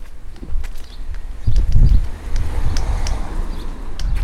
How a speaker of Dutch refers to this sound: Sorry van de wind.